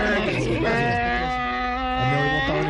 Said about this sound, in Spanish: Sí, pero se ganó su burro. un burro, ahí.